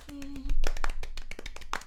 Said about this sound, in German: Auch an dieser Stelle nochmal einen kleinen Applaus.